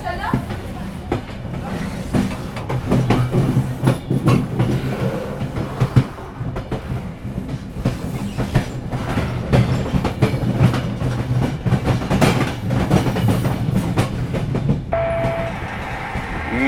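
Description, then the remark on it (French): An SNCF night train, number 227 bound for Roma Termini, rumbles steadily along the rails, a low continuous roar with faint rhythmic clicking of wheels, heard from inside the carriage; a brief muffled voice comes through near the end. “À bord du train de nuit numéro 227 à destination de Rome Terminus.”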